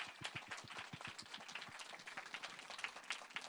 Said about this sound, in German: Wir wissen, was du meinst. Auch dir einen großen Applaus.